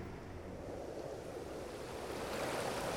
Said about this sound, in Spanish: La costa estaba picada. Las olas se elevaban cortas y puntiagudas. El río las lanzaba hacia el aire y las tragaba de nuevo y las volvía a lanzar.